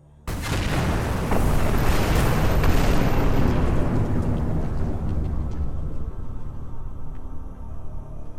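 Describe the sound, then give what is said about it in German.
A massive, rumbling explosion bursts in suddenly and roars for several seconds, a dense low boom that slowly fades into a long debris-filled rumble: a spaceship crashing onto a gas giant in the Hamura system. “Was man sehen kann, wenn man so rausschaut in die Dämmerung, die Gasali donnert auf den Gasriesen im Hamura-System.”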